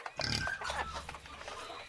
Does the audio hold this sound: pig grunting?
yes